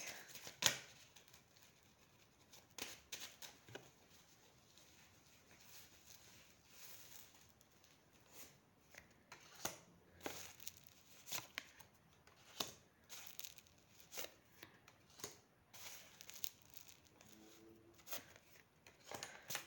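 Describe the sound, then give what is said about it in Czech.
Tarot cards being shuffled for a reading on partnership: a quiet, steady stream of papery riffles and soft slaps with irregular louder snaps, going on for the whole stretch with no talking. “A už se dívám na vaši fotku, míchám karty a podíváme se teda na vývoj partnerské oblasti.”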